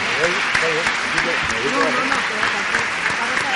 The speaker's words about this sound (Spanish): Por aquí con cuidadito le damos un aplauso, que son los verdaderos protagonistas hoy en este foro.